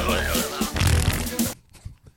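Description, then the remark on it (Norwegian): A loud, sputtering fart sound blown with the mouth, lasting about a second and a half, harsh and buzzy, then breaking off into quiet with faint rustling. “Og haien prompa etter å ha spist deg.”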